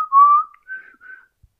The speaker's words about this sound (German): wir reden über eine Pfeife, Schiedsrichterpfeife. Ja, welchen Geschmack mit, die hat. Mit Geschmack, ja. So sieht's aus. Ja. Die hört man dann auch immer im Hintergrund so ein bisschen pfeifen, weil es genau. ist ja genau. eine Pfeife.